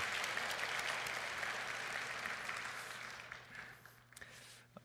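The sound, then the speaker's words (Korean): A church audience applauds for the praise singing with steady, dense clapping that holds for about three seconds, then thins into a few scattered claps and fades out near the end. “우리 찬양 때 박수 한번 해줄까요?”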